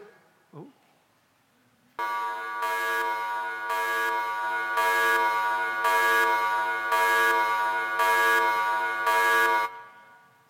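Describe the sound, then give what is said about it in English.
A loud, harsh alarm blares for about eight seconds, its buzzing tone swelling in steady, regular pulses roughly once per second, following a brief faint sound and near silence at the start. “That's what it is, it's an alarm.”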